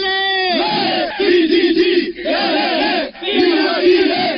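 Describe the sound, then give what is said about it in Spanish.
A group of trapped Chilean miners, 700 metres underground, chants a loud, rhythmic cheer together, voices rising in three or four drawn-out bursts with brief pauses between, energetic. “Vamos aquí a hacer un saludo. CHI.”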